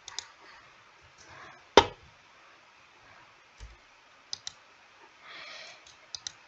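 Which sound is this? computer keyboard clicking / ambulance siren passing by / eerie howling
computer keyboard clicking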